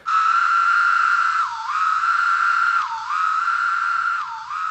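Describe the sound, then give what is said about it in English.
A male cicada's courtship call, the second courtship sound that John Cooley calls 'court two', given after the female answers his first call with a wing flick: a loud, continuous buzzing drone that dips briefly in pitch about every second and a half, giving a repeating wavering phrase, with no voices. “you know, the female hears pharaoh. If there's one close enough, she makes the wing flick and the male knows to approach her a little bit, and he, st- and he goes on with a second sound.”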